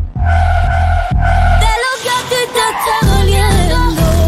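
Loud engine revving samples in rhythmic bursts blend into a song, dropping out briefly for a melodic passage before the deep motor roar returns and drives the beat again.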